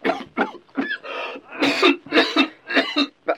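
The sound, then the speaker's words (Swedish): A rapid series of harsh coughs from a person with a cold, slight fever and headache, about eight bursts in a steady rhythm with brief gaps, some sounding like throat-clearing hacks, loud with no talking. “Hostar du nu?”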